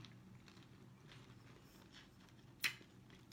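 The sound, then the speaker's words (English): Chewing on a crunchy, lemony sherbet fruit sweet: soft, faint crunches, then one sharp, crisp crunch near the end. No one speaks. “I'm just going to give it a bit of a chew on. Mmm. Mmm. Can you hear that crunching?”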